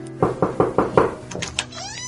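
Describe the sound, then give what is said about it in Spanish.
Five quick, evenly spaced knocks rap on a door, fairly loud, followed by a brief high, squeaky tonal sound as the knocking stops. “Y mientras volvía a contar su dinero, alguien tocó la puerta.”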